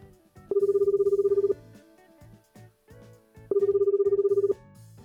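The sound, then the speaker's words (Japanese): Two long electronic ringback tones, each lasting about a second, separated by a pause, the steady warbling buzz of an outgoing phone call to a film director waiting to be answered, with faint background sound between rings. “電話かけさせていただこうと思います”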